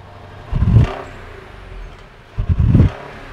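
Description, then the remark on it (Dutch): The engine of a Mercedes-Benz luxury limousine, the largest Benz available, is started and gives two deep, throaty revs a couple of seconds apart, each swelling and dropping back to a low idle rumble, with no one talking. “Ik slinger hem aan voor je.”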